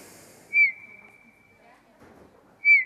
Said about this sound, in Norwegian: Vakker fløytetone har den også, Dompapen.